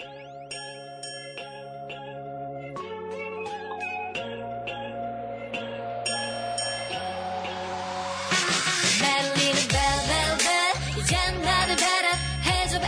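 A bright, upbeat K-pop girl group track plays loud, with chiming synth notes over a steady beat that builds into a fuller, denser arrangement near the end.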